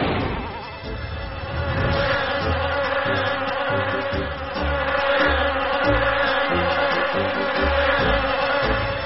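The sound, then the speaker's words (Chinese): A swarm of bees buzzes loudly and continuously, a dense droning hum that stays steady for the whole stretch, with a low rhythmic pulsing beneath it and no voices. “哦，太好了，蜜蜂都飞走了。”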